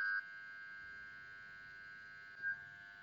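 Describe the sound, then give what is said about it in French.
A strange electronic phone tone, a steady, thin whine like a dial-up modem, opens with a brighter burst and carries a short chirp near the end, fairly quiet, with no talking. “Mon téléphone c'est un truc que je ne connaissais pas. C'était très nouveau. Ce bruit était de l'espace.”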